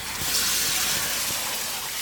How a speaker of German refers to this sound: Heißes Wasser. Dreh es richtig heiß auf, so weit du halt kannst.